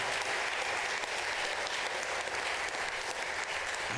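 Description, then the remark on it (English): A church audience applauds steadily for several seconds to thank Pastor Chase for preaching, a dense, sustained wash of many hands clapping at an even loudness with no voices standing out. “Let's praise the Lord and thank Pastor Chase for preaching today.”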